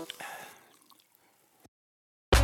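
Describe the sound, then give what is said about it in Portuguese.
7-Up lime-lemon soda fizzes and bubbles, a bright hiss dotted with tiny popping crackles that fades over about a second and a half, then silence before a sudden loud burst. “Chegou a hora de refrescares os teus dias com 7-Up e leva o teu mood com 7-Up, a combinação perfeita da lima e do limão, com o um borbulhar intenso e um refrigerante incrível que te põe up.”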